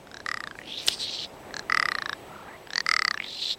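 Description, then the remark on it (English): A snow-white male rock ptarmigan in spring display flutters into the air and glides to earth, calling in three loud bursts of harsh, rapidly pulsed croaking rattles, fairly high and raspy, separated by short pauses, with no voices present. “Later in spring, a snow white male will flutter into the air, then glide to earth while calling loudly.”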